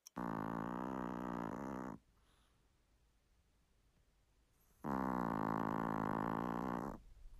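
A two-kilogram chihuahua named Bonzo snores loudly in deep sleep right beside the listener's ear in bed around midnight, two long, rumbling grunting breaths about three seconds apart, with quiet pauses between them and no voices.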